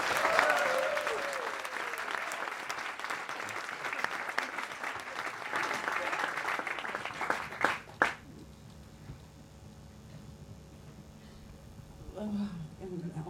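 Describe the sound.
An audience claps loudly and steadily for about eight seconds for a woman lecturer, a dense roar of many hands, then the applause stops abruptly with a couple of sharp final claps, leaving quiet murmuring and faint voices.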